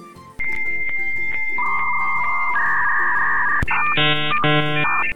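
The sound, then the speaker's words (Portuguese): A dial-up modem connecting to the internet over a telephone line: sustained electronic tones that shift pitch, a sharp click, then loud buzzy warbling bursts of stacked tones, with no voices. “a conexão da internet de escada fazia aquele clássico barulho.”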